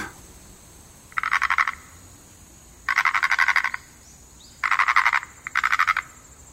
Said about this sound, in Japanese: なんだと思うカエルだろ。違う。えこんな季節に都合よくカエルが鳴くはずないでしょでも。これは、二枚の貝殻をこすり合わせている音。